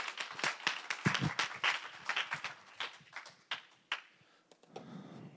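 An audience applauds with a dense, steady patter of many hands clapping, fairly quiet overall, then thins out to scattered claps and fades near the end.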